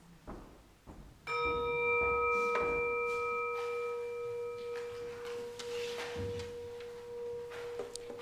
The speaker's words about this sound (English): will sound our, our listening bowl for us. Silence ourselves.